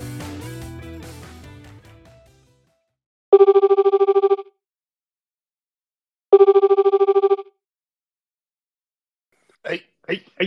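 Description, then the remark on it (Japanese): A bright electronic phone ring sounds twice in clear, evenly spaced bursts, each a rapid trill about a second long, after a fading musical intro; a few faint voice fragments follow. “ルールはただ一つ電話があれば即スタート24時間スタンバイ OK の僕たちのお話”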